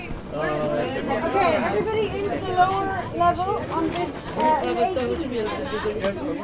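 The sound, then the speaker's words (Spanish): Dense crowd chatter as someone boards a special double-deck TGV carriage on a Paris to Barcelona train carrying about 120 mostly young people; many overlapping voices with a steady murmur and occasional louder exclamations, no single speaker standing out. “Este vagón al que escuchas que me estoy subiendo era especial.”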